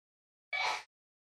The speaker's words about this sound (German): Gesundheit. So. Ja, ne, nicht an mich, aber danke.